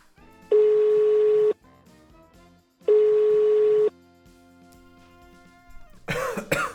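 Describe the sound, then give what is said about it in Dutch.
A phone call's ringing tone: two steady, buzzy beeps about a second each, separated by a pause, followed by a short rough burst of noise at the end as if the line is picked up. “Ik zou zeggen, serie, bel Broeder.”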